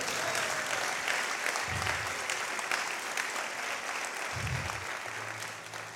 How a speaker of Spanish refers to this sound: Vamos, denle un aplauso fuerte al Señor.